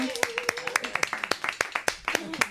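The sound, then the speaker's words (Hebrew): A steady, rhythmic run of hand claps, about ten crisp claps in quick succession, fairly loud, with a faint voice or hum lingering underneath. “למחוא כפיים.”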